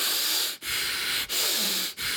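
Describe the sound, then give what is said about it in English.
Forceful, rapid breathing exercise, a steady hissing rush of air broken by brief pauses roughly every two-thirds of a second, loud, with no talking. “you don't you're not even giving your body time to decide if it wants to relax or not, and you're just giving it this like real mm-hmm. um, increase in the intensity of the breath.”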